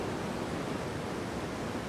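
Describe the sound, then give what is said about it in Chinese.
Gentle ocean waves wash onto a beach in a steady, soft, hissing rush of surf that stays even throughout, with no voices or other sounds. “轻柔的海浪声”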